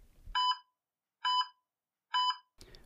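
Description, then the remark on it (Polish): A medical device alarm beeps three times in a steady, evenly spaced pattern, each tone bright and buzzy with rich overtones. The beeps are clear, with no talking. “W pierwszej kolejności poruszymy dosyć irytujący temat alarmów generowanych przez urządzenia medyczne.”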